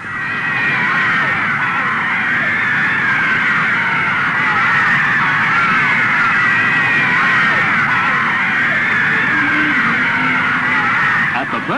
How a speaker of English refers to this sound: … braves the screaming mob and brings on a fresh wave of hysteria